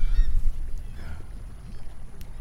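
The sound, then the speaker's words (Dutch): Gulls chatter softly, a scatter of short overlapping calls over a steady low rumble, with no one speaking. “Je hoort ze de achtergrond een beetje brabbelen.”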